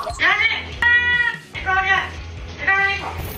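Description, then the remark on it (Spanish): A 10-year-old Amazon parrot living in Houston talks in three short bursts of shrill, speech-like chatter resembling the voice of a Hispanic mother or grandmother, separated by brief pauses, fairly loud. “Este encantador loro amazónico de 10 años revoluciona las redes sociales.”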